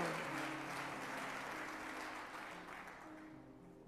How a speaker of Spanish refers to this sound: Vamos, dele fuertes palmas al Dios de los cielos. Amén.